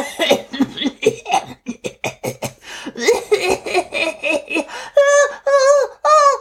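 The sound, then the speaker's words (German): A voice acts out a fit of sputtering coughs after swallowing water while swimming, a quick run of choppy bursts that gives way to a few drawn-out, strained vocal sounds, fairly loud. “ruderte mit den Armen und mit den Beinen und hustete vor sich hin und hat dann aber gesagt, ich hab mich geschluckt”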